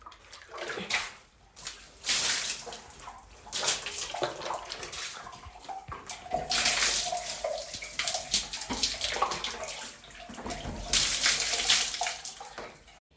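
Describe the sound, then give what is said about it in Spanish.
Icy well water splashes and sloshes in irregular bursts as two girls bathe in silence, fairly loud, with brief lulls between surges; no voices are heard. “El agua del pozo era un agua risueña. Sin embargo, las niñas se bañaban en silencio.”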